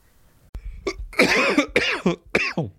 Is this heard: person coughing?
yes